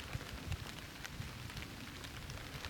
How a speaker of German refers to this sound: Es war die ganze Zeit trocken und irgendwie genieße ich gerade den Regen, obwohl ich einfach gar keinen Bock auf Regen habe, aber gerade das Geräusch und es, es kühlt mal runter.